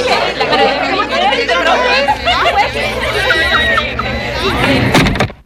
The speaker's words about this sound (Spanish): gente en ambiente.